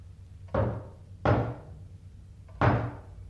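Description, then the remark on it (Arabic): Three loud knocks on a door, spaced unevenly at roughly one-second intervals, each a heavy thud with a short ringing decay. No one speaks. “دي خبطة الشطر علي”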